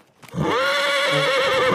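A horse gives one loud, sustained whinny lasting well over a second, clear with a bright, wavering pitch and no talking over it.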